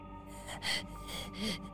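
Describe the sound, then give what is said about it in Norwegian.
A voice imitates the creepy heavy breathing of a caller on the phone: two or three loud, breathy gasping pulls of air, with no words spoken. “Sånn creepy pusting, liksom.”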